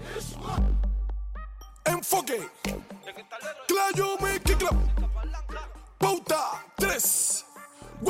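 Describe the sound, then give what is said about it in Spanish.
Cuban reparto music sung by a reparto singer, with deep, booming bass drops, sharp percussive hits and a melodic sung vocal, played loud with brief pauses between phrases. “El reparto es un ritmo que surge en los barrios más vulnerables de Cuba y se diferencia del reggaetón porque en lugar de hablar de millones de dólares, oro y limusinas, hablan de los problemas de esos barrios.”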